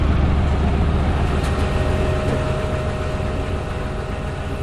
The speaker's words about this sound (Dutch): Dan hoor je hem ook eh, de hydrauliekpomp aanstaan.